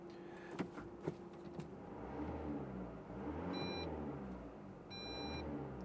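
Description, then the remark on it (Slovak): A car's faulty front parking sensor emits two short, high electronic beeps about a second apart, sounding over the steady low rumble of the running engine while the car waits at an intersection in Bratislava. “To pípanie nie je štartovací signál, to je e, eh, nefungujúci predný, predný senzor.”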